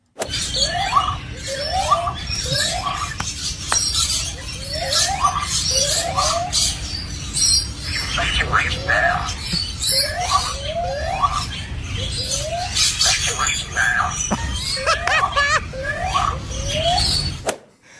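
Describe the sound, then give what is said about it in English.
A lyrebird in a zoo imitates the zoo's evacuation siren a day after it sounded, repeating short rising whooping calls in quick pairs and groups with a steady rhythm, fairly loud over a constant low outdoor rumble. “Now, if you don't know what a lyrebird is, basically they can mimic many things.”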